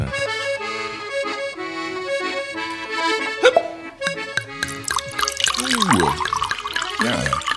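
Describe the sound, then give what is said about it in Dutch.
A drink is poured into a glass: a steady, splashy gurgle with glugging pitch sweeps, moderately loud, following a few seconds of bright ringing tones, with no talking. “Oh, dat wordt gelijk ook in levende lijven ingeschonken naast mij, zie ik.”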